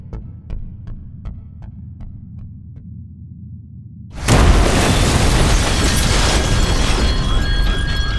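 A low steady rumble with faint regular ticks gives way halfway through to a sudden, loud car bomb explosion in via D'Amelio, which leaves buildings gutted and cars burning, and becomes a sustained, roaring wash of noise to the end. No one speaks.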